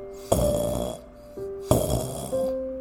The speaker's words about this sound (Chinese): 正当他们担心的时候，传来了一阵很轻微的打呼声。